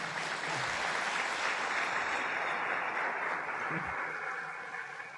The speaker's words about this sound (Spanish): Por favor, un aplauso muy fuerte